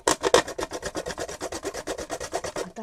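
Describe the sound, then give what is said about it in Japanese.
A carrot is grated on a grater fitted with a thicker blade, a grater otherwise used only for grating yam, in quick, steady back-and-forth strokes, each producing a raspy scrape, about twenty strokes in an even rhythm with no talking. “これ細いですねちょっと外してもうちょい太いやつつも山芋おろす時くらいしか使ったことがない”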